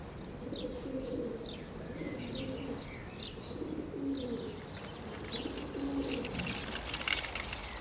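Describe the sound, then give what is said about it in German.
Doves coo in a steady, repeating rhythm while smaller birds chirp and twitter higher up, all blending into a lively chorus with no voices, singing in a forest in the morning in Germany. “die singenden Vögel aus dem Wald, durch den ich morgens meine Spaziergänge machte.”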